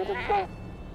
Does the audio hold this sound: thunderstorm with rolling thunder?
no